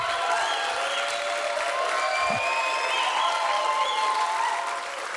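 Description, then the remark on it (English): A standing church audience claps and cheers steadily for its pastors during a morning service, a dense wash of applause with shouts and whoops rising above it, loud, tapering slightly at the end. “Just clap and shout and scream for your pastors this morning and just tell them how much you love them.”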